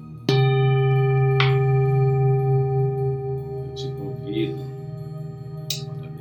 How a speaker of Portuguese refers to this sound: respirando o som poderoso desse sino, você imaginar que a paz está tomando cada célula do seu corpo, de cada lado do seu corpo, você está vibrando em paz.